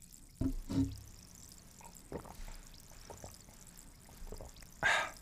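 Sparkling water poured into a glass for a toast: a few splashy gushes, then faint scattered fizzing crackles, ending with a brief brighter hiss. No voices.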